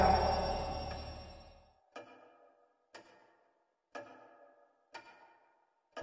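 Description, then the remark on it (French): A heavy, resonant clunk fades out, then a large clock ticks slowly and steadily, one loud echoing tick about every second, each ringing briefly into silence. “La grande horloge ne lui donnait qu'une demi-heure d'absence.”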